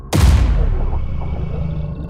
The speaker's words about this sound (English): There was a sudden cacophony of booms outside.